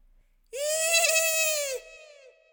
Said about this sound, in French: Dehors, il neige tant que les traces d'Anouk se devinent à peine. Lucien les suit prudemment, quand soudain il entend un hurlement.